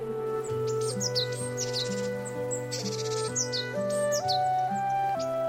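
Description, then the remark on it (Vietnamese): A yellow-winged bird perched on an apricot tree branch sings a clear, high-pitched song of quick repeated chirps and short descending whistles, heard over a steady, sustained musical tone with no talking. “Thế rồi, chú cất tiếng hót lanh lảnh, trong veo.”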